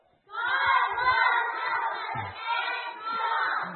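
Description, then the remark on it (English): A group of children yell out the answer to day one's Bible point together in one loud, sustained burst of overlapping voices that lasts a few seconds, indistinct. “So let's see if the kids remember. What was day one's Bible point? Okay, just yell it out.”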